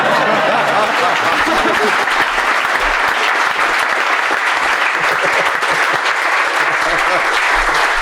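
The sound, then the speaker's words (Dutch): A live show audience applauds the guests steadily and loudly for several seconds, a dense wash of clapping that stays full throughout, with faint scattered laughter mixed in. “hey, ik wilde applaus voor je vragen.”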